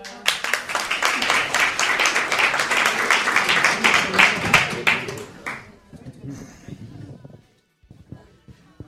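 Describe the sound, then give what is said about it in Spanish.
An audience bursts into loud, dense applause after a member of the public raises a hand to speak. Many hands clap at once for about five seconds before it thins out and fades, leaving scattered claps and low murmuring. “Allí por fin se levantó una mano, un aplauso, por favor.”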